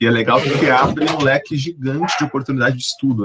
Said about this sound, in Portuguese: Desculpa o cachorro fazendo barulho de fundo aí.